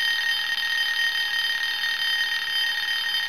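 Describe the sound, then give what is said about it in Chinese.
A mobile phone rings with a steady, high electronic trill that holds unbroken at an even loudness for a few seconds, with no voices over it. “他的手机响了起来。”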